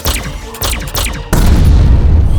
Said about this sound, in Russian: Посмевший оказать сопротивление абордажный танк-штурмовик тут же был награжден залпом плазменной пушки, расположенной в области левого предплечья космостального гиганта.